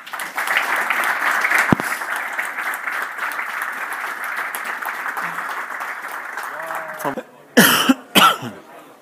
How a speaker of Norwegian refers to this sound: Gi disse guttene en applaus.